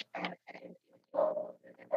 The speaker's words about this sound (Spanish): porque está ladrando un perro y creo que ya es, es un buen momento para cerrar aquí el, programa.